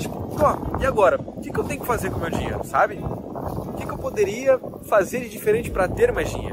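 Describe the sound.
A man talks steadily in Portuguese about personal finances on a windy day while low, blustery wind rumble buffets the microphone throughout, a muffled roar sitting beneath his voice and swelling slightly toward the end.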